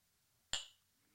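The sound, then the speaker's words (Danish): A single bright clink of glasses touching in a toast, crisp, with a short ringing tail that fades quickly against an otherwise quiet background. “Skål! Skål.”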